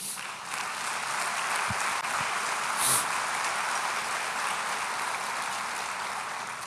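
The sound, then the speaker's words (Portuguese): A crowd applauds for the King, a dense wash of many hands clapping at an even, loud level throughout with no voices standing out. “Aplauda ao Rei.”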